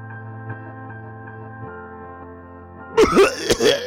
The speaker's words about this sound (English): Was that you coughing?